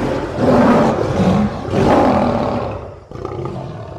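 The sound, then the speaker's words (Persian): A mother lioness roars twice in long, loud, rumbling bursts, crying out in pain after a hunter killed her two cubs, with a strained, anguished tone and a brief pause between them, then a lower rumble trailing off. No one speaks. “ماده شیری برای شکار از بیشه خارج میشه وقتی برمیگرده میبینه تیراندازی آمده و هر دو بچهش رو کشته و پوستشون رو کنده و برده شیر مادر قلبش جمع میشه و از درد فریاد بلندی میکشه که نفیرش به آسمان میرسه”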